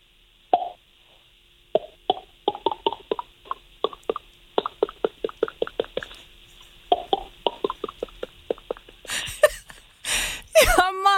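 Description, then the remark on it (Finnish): A voice imitates uncorking a bottle of red wine and pouring it into a glass: an opening pop, then a long, quick run of wet mouth plops and clicks, ending in a short hissing gurgle. Fairly loud, no speech. “Avaat sen korkki sieltä ulos ja sitten kun sä kaadat sen niin kuin heti siitä kärjestä tuohon lasiin.”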